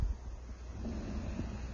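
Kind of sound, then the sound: vocal imitation, person imitating snoring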